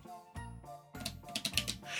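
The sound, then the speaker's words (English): A small deck of eleven cards being shuffled, a short burst of quick, crisp papery flicks lasting about a second, with a low steady tone running underneath. “There's only eleven cards to shuffle.”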